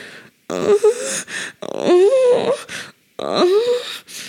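Three drawn-out sexual moans, fairly loud, each with a wavering, sliding pitch and breathy edge, separated by short silent pauses; no speech around them.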